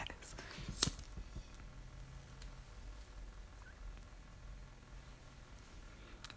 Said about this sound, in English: Hold on one second. I'm light my cigarette real quick. I apologize.